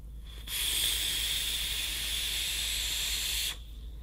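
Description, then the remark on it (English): A steady, bright hiss from someone vaping Pink Spot juice from Pink Spot Vapors on a pink Hemo dripping e-cigarette mod with a pink drip tip, lasting about three seconds with an abrupt start and stop, over a faint low hum and no talking. “I got it in my pink hemo mod with a pink drip tip, and I'm gonna vape some pink spot from Pink Spot Vapors.”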